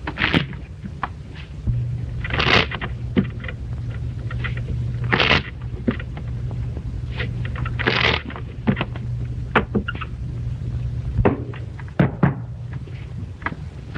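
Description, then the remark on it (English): Playing cards are shuffled in several quick, crackling riffles, with scattered taps and clicks of handling between them over a faint low hum. No one speaks. “Shuffle the cards. Yeah, you gotta scramble them up a little bit, you know.”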